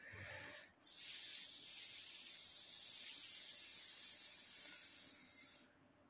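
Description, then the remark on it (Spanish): A single slow, hissing exhale held steadily for about five seconds, fairly loud, made during a breathing exercise after inhaling through the nose and holding the breath about three seconds, imitating a balloon deflating, with no talking and a short softer breath just before it. “Retenemos el aire alrededor de 3 segundos y lo expulsamos pausadamente haciendo el sonido como el desinflar de un globo.”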